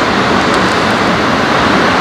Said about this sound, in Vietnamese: lúc nãy mình đang thu dở thì tự nhiên trời nó mưa to quá tiếng mưa nó át hết cả tiếng mình nói cho nên là mình phải tắt đi xong bây giờ trời nó bớt bớt mưa hơn một chút thì mình mới ngồi thu lại